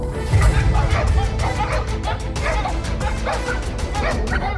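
Several hounds bark and yip in rapid, overlapping bursts, loud, with some whimpering mixed in over a low rumbling background, introducing the Release the Hounds segment of Den of Otaku.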